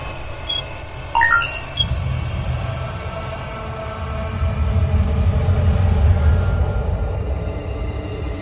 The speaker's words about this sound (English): Let me put this on audio. You should be able to hear the magnetic resonance field.